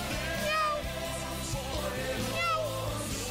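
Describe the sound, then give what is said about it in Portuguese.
A voice imitates a cat, giving a few drawn-out, rising-and-falling meows over a steady low rhythmic backing, moderately loud. “na vista do leão da tribo de Judá, virou gatinho. Miau! Miau! Miau!”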